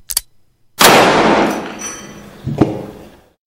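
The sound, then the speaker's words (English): A sharp mechanical click, then a single loud gunshot from a Beaumont Adams revolver held to a man's temple, ringing out and decaying slowly with reverberation, followed by a duller thud. No one speaks. “He retrieved the Beaumont Adams revolver from his desk drawer, and, his whole body trembling under a wave of freezing cold defeat, placed it to his temple.”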